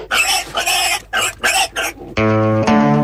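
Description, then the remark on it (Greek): Pigs grunt and squeal in five quick, loud bursts, then a steady sustained musical tone takes over and continues to the end. “Γουρούνια!”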